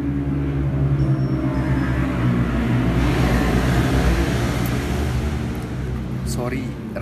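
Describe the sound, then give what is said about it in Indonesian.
Motorcycles pass on the road beside a house, their engines making a loud, steady drone with rising and falling revs that fills the whole stretch, with a voice faintly mixed in underneath. “pada berisik soalnya rumah gue di pinggir jalan gitu dan tadi ada motor-motor ala itu lewat dengan suara yang kayak ya gitulah”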